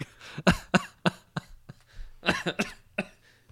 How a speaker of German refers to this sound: Jetzt muss, ich, jetzt muss ich vor Schreck husten. Geht's wieder? Ja. Ja. Geht.